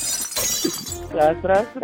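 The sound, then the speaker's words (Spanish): A ceramic coffee mug shatters on the floor in a bright, crashing burst with scattered rattling, then a voice speaks loudly over the fading debris. “¡Sas, culebra al piso y...”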